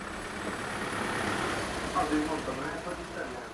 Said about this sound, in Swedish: Så här låter gatubilden i Budapest utanför Akvarium där det årliga innovationsforumet Innovate pågår. Det här är i Budapest i Ungern där EIT har sitt högkvarter.